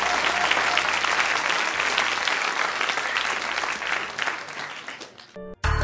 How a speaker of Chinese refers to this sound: 好，为毕老爷鼓掌。